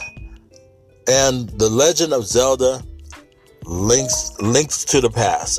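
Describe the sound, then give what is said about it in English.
A soft, high electronic chime tone from a phone rings briefly before a man starts speaking, and faint tonal pings seem to sound again quietly beneath his continued talk. “Sorry about my phone here.”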